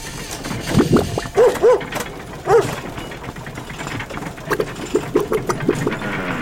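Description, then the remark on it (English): A hoist winch's gears ratchet and clatter in quick, uneven bursts of clicks as it hoists a person up, the gear sticking, with a few squealing, creaking tones rising over the grinding. “All the gear's sticking.”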